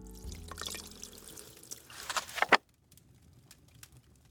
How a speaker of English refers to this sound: I top up my coffee and sit back down with Nigel.